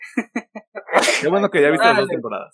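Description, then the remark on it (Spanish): After a few short bursts of laughter, one sharp sneeze bursts out, and a person goes on talking right after it. “Salud.”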